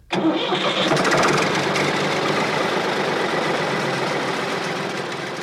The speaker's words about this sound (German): Hier auf der Herreninsel erreicht mich wieder das gewohnte Geräusch von Motoren und Kraftfahrzeugen. Die Herreninsel ist zwar eigentlich unbewohnt, dafür aber umso geschäftiger. Hier wird Forst- und Landwirtschaft betrieben.